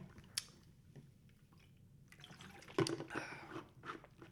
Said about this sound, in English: Hang on, let me let me get some. Let me get a sip of water here. Hang on.